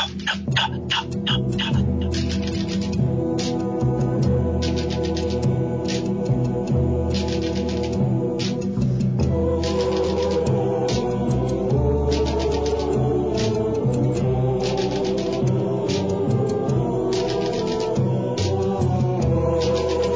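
Sharp, dry clicks of stones knocked together keep a steady rhythm throughout a music track, sounding over sustained low instrumental tones and a melody, with a quick flurry of taps at the start.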